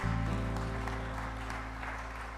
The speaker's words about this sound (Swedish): Let's clap our hands and appreciate His presence.